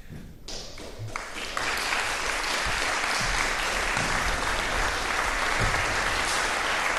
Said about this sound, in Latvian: Tie ir aplausi pirms, eh, pirms eh, mūsu nākamās rubrikas, kas ir veltīts